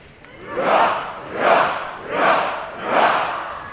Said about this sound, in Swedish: Vi utbringar ett fyrfaldigt leve för Hans Majestät Konungen och den kungliga familjen. De leve! Hipp hipp!